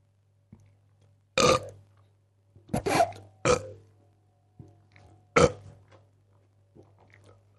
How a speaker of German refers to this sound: Du sollst ja nicht reinrülpsen. Äh. Ich, wieso? Na, weil das, das ist doch keine Zahl.